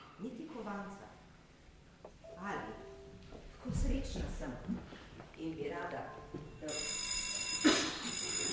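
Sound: doorbell ringing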